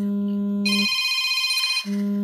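A telephone rings with a steady electronic tone, shifting from a low buzzing pitch to a brighter high warble and back, fairly loud, with no one talking.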